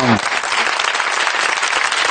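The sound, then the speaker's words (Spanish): A dense, steady wash of television audience applause, many hands clapping loudly and continuously, with a brief low voice fragment at the very start. “Muchas gracias que sepáis que nunca se había aplaudido en televisión en el mundo al esperma, ¿sabes?”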